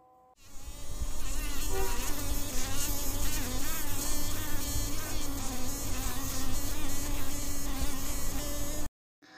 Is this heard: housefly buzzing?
yes